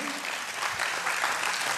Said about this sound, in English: I don't do that well. You know, when you're like supposed to stop and people are supposed to clap and you and you go to the next thing, and I don't I don't I don't know how they do that.